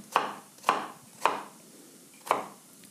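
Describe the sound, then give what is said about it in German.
A knife dices the second half of an onion on a cutting board, cutting down lengthwise into small cubes: four crisp chops, the first three evenly spaced and the last after a short pause, with no talking. “Und nochmal der zweiten Hälfte parallel zweimal einschneiden. Dann wieder der Länge nach runter.”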